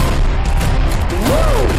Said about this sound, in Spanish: Muchos tiros, muchos tiros.